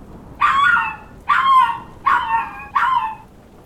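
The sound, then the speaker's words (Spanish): The dogs José and Alberto, heard in the distance, whimper and cry in four drawn-out, high-pitched wails, evenly spaced about a second apart, fairly clear over a quiet background with no talking. José is a brown criollo (mixed-breed) dog. “En ese momento sentí un poco de paz, pero rápidamente desapareció cuando escuché a lo lejos llorar a José y a Alberto.”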